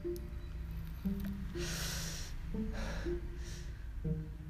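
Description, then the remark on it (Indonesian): Someone smoking a cigarette draws on it with three breathy, hissing inhales spaced a second or so apart, over a low, steady engine-like hum of vehicle exhausts from the road right beside the house, with no talking. “Terus isepan rokok ya emang lagi ngerokok terus juga rumah di pinggir jalan persis.”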